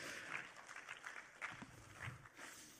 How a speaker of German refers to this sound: Geben wir Applaus für Mike Müller, ich finde den lustig.